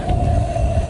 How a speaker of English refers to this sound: That is the sound of Billy Joel, the gray seal, growling